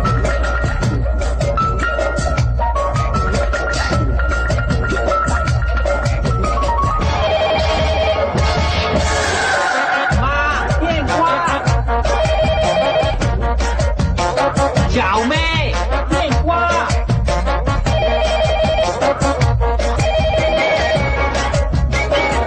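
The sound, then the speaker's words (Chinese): A Bubugao (BBK) caller-ID cordless telephone rings in an advertisement, with a bright, electronic warbling tone that keeps going for the whole stretch. The ring is loud and layered over busy backing music, and no one speaks. “接下来继续听到刚刚这个品牌它的另一款产品，这就是无绳电话。”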